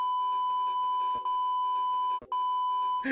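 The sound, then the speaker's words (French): A long, steady censor bleep tone runs through nearly the whole stretch, broken by two brief gaps, with faint muffled talking underneath. “Tout ça, c'est bipé.”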